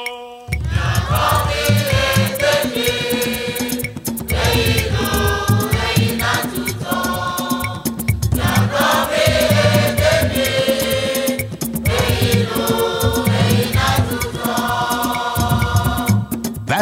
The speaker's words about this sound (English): It's the sound of Bobobo, also known as Akpese, a neo-traditional popular music of the Ewe people, created in the town of Kpando in the 1950s from older styles of recreational music called Konkoma. We're hearing a popular commercial recording,